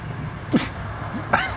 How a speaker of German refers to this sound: was war das denn? Hustennies? Das Bier. So fast durch die Nase dann wieder raus.